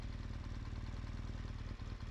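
A motorcycle engine idles steadily, a low, even, rhythmic chugging that holds for a couple of seconds with a slight dip near the end.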